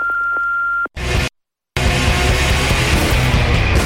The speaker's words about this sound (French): Laissez un message après le bip.